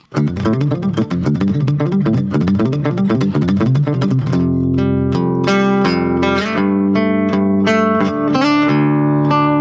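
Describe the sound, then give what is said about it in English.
A loud distorted electric guitar played through an amp with a classic distortion setting and a compressor on, starting with fast chugging palm-muted riffs, then ringing out into sustained, gritty chords. No talking. “okay, so he has classic distortion on. We're just going to demo like what this sounds like through the different like voicings.”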